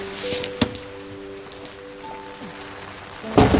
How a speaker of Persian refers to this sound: چه بارونی میاد